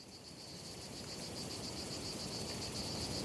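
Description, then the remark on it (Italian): A steady, muffled drone of cicadas hidden among date palms buzzes on without pause, a faint pulsing shimmer over a soft night-time hiss, with no voices present. “Ogni cosa era immersa nel silenzio, a parte il brusio soffocato delle cicale, nascoste tra le palme da dattero al di là delle mura.”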